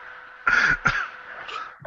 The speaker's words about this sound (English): Now you're making me cough.